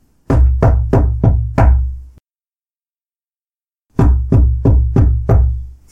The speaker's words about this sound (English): And I guess the first thing we noticed was uh, a particular knocking noise that uh, you would hear in the house, and it was always.